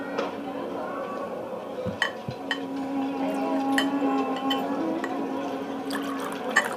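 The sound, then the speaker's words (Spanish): Water pours steadily into a cup, a continuous liquid gurgle with a rising tone as it fills, broken by a few light clinks of dishware. “Señor, ¿quiere agua, señor? ¿Desea agua? Sí, eh, sírvame.”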